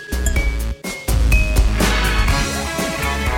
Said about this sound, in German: Komm, wir stoßen an. Prost